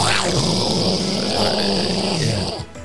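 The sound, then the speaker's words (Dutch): A person imitates an office air conditioner with their voice: a steady, breathy whooshing hum with a low throaty rumble, held for over two seconds before stopping abruptly. “Ja, we hebben de eh, airco moeten zetten, want anders uur op de achtergrond alleen maar...”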